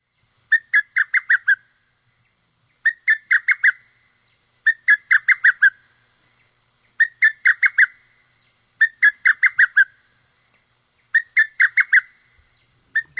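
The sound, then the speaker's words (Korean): A male lesser cuckoo calls for a female from the top of an old village shade tree, repeating its loud, clear call about six times, each a quick stuttering burst of five or six whistled notes, spaced by short pauses with no other sounds. “요거는 지금 숙, 어, 수컷이 우리 동네에 음. 옛날 르티나무, 정자나무가 있어 꼭대기에서 암컷을 부르는 거예요.”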